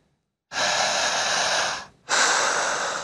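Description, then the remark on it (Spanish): Two forceful, loud breaths, a long rushing exhale followed by a brief pause and a second shorter one, with no talking, demonstrating controlled diaphragmatic breathing for lung ventilation. “pulmonar con mecanismos diafragmáticos de carácter controlado.”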